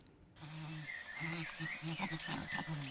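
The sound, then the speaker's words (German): Wild chimpanzees call in a rainforest in Tanzania, a series of low, hooting vocalizations repeating over a steady backdrop of bird and insect chatter, from a video by the Jane Goodall Institute. “Ein Affenbaby kuschelt sich ans Muttertier, Jungaffen jagen sich gegenseitig um und auf die Bäume, wildes Schimpansenleben, weit weg von Basel im Regenwald von Tansania.”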